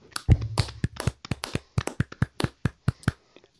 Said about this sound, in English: So, like oh, we do at the end of every bracket, we're going to clap it out.